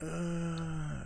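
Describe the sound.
A single drawn-out, low guttural groan from a human voice mimicking a zombie from Call of Duty zombie mode, steady, lasting about a second before trailing off.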